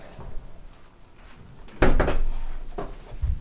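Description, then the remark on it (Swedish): A door in an apartment in Malmö, Sweden, is pushed shut with a solid wooden thump, then bumps again a moment later as it fails to latch, with low room rumble and no talking. “Dörren vill inte riktigt gå igen.”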